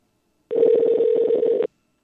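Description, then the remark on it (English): A single harsh, buzzy phone ringing tone on a call lasts just over a second. It warbles rapidly and sounds distorted, with silence before and after. “What a terrible sound on a connection that is, dude. That's awful. Listen to that.”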